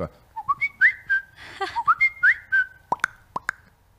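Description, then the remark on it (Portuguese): A person whistles a bird-call imitation, a quick run of rising and falling chirpy notes followed by several sharp, clipped tweets, clear with no talking. “Tipo, na sala de aula eu já ficava enlouquecendo a galera, fazendo, imitando barulho de tudo, o passarinho, uhum.”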